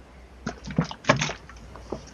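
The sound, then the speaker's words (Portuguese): A person takes a sip of water, with a few short, soft wet gulps and small handling noises spread over a couple of seconds, and no talking. “Desculpa, deixa eu tomar uma água.”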